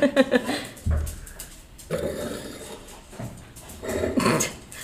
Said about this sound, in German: Ah, das ist jetzt der Hund. Der kommt. ah, Hunde machen auch ein schönes Geräusch.